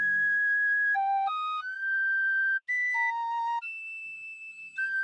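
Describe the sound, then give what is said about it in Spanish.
Clumsy, unharmonious playing of an ocarina taken from a chest by someone sitting in an old wooden chair at home: a handful of breathy, pure notes that jump unevenly up and down in pitch, some held and some cut short, played alone and fairly loud. “Sentándose en una vieja silla de madera rústica y añeja, sacó del cofre la ocarina e intentó tocar.”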